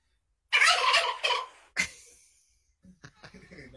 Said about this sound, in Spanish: ¿Cómo es el sonido de un guajolote?